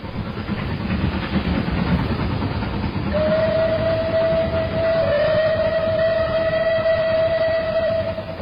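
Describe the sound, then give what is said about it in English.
A train rumbles steadily along, and about midway a long, sustained, loud whistle sounds over the noise for several seconds. No one speaks. It is the train Mrs. Donoghue took on 26 August 1928 to meet her friend at the Wellmeadow Cafe in Paisley, Scotland. “It was on August the 26th, 1928, that Mrs. Donoghue took a train to meet her friend at the Wellmeadow Cafe in Paisley, Scotland.”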